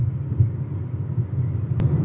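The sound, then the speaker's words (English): Steady low rumble inside a car driving to a pirate bar, engine drone and road noise filling the low end continuously, with a brief click near the end and no one speaking. “Well, I'm podcasting in my car going to the pirate bar.”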